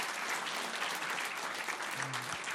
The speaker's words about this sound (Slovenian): E, bi želeli, ja, seveda lahko zaploskate. Hvala lepa